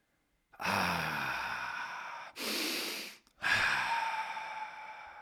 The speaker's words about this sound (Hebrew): כמו תמיד, מתחילים בכמה נשימות.